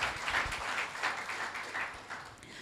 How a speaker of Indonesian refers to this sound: Beri tepuk tangan dulu buat Tuhan Yesus.